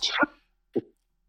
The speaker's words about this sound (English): bless you